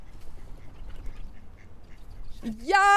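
A low, muffled rumble of background noise gives way at the end to a loud, nasal duck quack with a rising, buzzy pitch that cuts in sharply.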